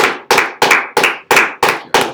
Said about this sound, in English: clap is extended. extended clap. No, no standing ovation. it's like it's the least you can do.